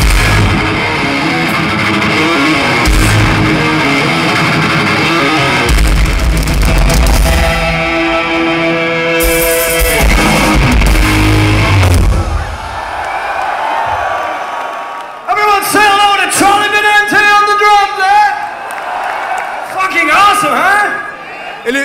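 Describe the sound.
At a live thrash metal band performance in São Paulo, a loud, dense wall of distorted band sound with heavy low-end pounding fills the first half, then drops away to shouting voices and crowd noise for the remainder.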